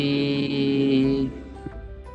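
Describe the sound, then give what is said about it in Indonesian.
Tinny, sustained tones from a video playing on a mother's speaker in the background for about a second before cutting out, leaving only a faint murmur and low room noise. “suara TV siapa ini”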